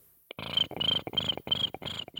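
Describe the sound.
A voice imitates a cricket chirping: four loud, raspy trilling bursts in a steady rhythm, with brief gaps between them and no talking.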